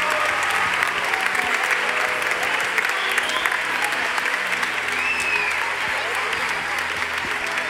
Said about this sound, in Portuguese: E elas se comportaram muito bem. Foi verdade ou não foi? Elas merecem uma salva de palmas. Obrigado, crianças.